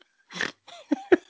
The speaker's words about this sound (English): that was a snort.